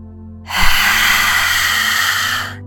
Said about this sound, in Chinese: 第八次深深的吸气，去感受你是一个强大的狮子。